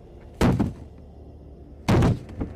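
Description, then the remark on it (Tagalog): Two heavy, forceful bangs against a wooden kitchen door at the back of a house, about a second and a half apart, as people try to break it open, each followed by a rattling shudder; loud, with no voices. “At sinubukang sirain ang pinto ng kusina.”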